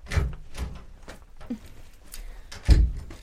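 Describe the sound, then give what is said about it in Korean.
A room door is abruptly thrown open with a creak, rattle and a couple of knocking thumps, ending in a sharp, loud bang near the end. Fairly loud, with no voices. “그때 방문이 벌컥 열렸다.”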